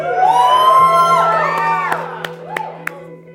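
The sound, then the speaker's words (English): A crowd erupts in loud cheering and high whoops, rising and falling shouts overlapping, with a few sharp claps or pops near the end as the noise gradually fades. “And the crowd went wild.”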